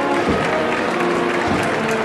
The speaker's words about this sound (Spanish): Hay un grupo de gente que vuelve a reactivar los aplausos de, claro, estos últimos pobres de... También se lo merecen. se lo merecen, claro, claro. son los primeros. Claro, claro. claro. Los aplausos los va abriendo la bandera.